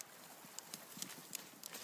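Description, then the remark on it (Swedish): Reindeer hooves clattering on the clear ice of lake Fjällsjön in Badjelanda national park, an irregular scatter of sharp, bright clicks and knocks from several animals stepping hesitantly out onto the ice, fairly quiet against a soft hiss of wind. “Tvekande klapprar renarna med sina klövar ut på Fjällsjöns blankis.”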